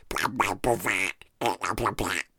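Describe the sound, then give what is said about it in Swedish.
A person imitates how a voice spoken into a baby monitor's handset sounds through the crackly monitor speaker: garbled, distorted, nasal vocal bursts with no clear words, in two short phrases separated by a brief pause, fairly loud. “Det är liksom sprakar och hejvilt och som liksom röst typ.”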